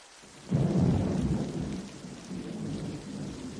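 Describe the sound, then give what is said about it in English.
Steady rain hisses throughout, and after a brief moment a deep rumble of thunder rolls in, loud at first and then slowly fading beneath the downpour. No voices. “Let me just say it before this rain stops and we go back.”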